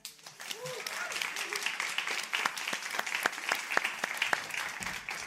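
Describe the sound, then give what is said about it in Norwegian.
An audience applauds warmly as climate activist and UNICEF ambassador Penelope Lea is invited onto the stage: a dense, steady patter of many hands with sharper individual claps standing out, holding at an even loudness for the whole stretch. A brief voice comes through early on. “Gi en varm applaus til Penelope Lea.”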